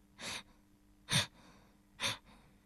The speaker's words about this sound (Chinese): 忽然，他听到一个声音。他停了下来，这时声音又响起来了，那是一种吸气的声音。